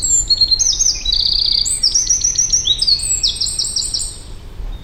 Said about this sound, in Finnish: Toi on peukaloinen.